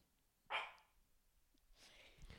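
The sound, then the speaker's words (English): A female dog lets out one sharp, loud bark at people coming up the stairs, followed by quieter shuffling noise and a faint second yelp near the end. No one speaks. “She's barking at people that are coming up the stairs.”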